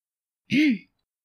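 A single short throat clear, fairly loud, a brief voiced rasp that rises and falls in pitch, with silence before and after; clearing the throat before speaking in a soft but firm tone.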